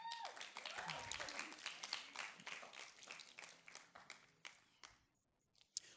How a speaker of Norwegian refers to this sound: Ja, takk. Åh, oh, Kan vi gi en applaus